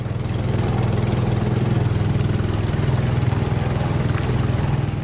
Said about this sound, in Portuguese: Para ficar no exemplo das comunidades, hoje é mais comum encontrar a rabeta, que é um motor de propulsão para barcos pequenos.